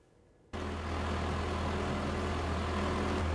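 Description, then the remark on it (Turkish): A heavy excavator diesel engine abruptly starts up and settles into a loud, steady low rumble with a droning hum, as its operator loads soil into a small child's toy truck on a street in Söğüt, Bilecik, Turkey. No one speaks. “İş makinesini görünce kepçe operatöründen kamyonuna toprak doldurmasını istedi.”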